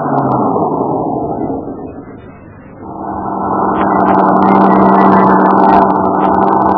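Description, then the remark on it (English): A line of heavy trucks rolls past, engines rumbling loudly and steadily, fading briefly in the middle as one vehicle passes before the next roars in behind, the drone continuing strongly to the end. “The rest of the line of trucks rolled past us until Cowell's truck bringing up the rear came into sight.”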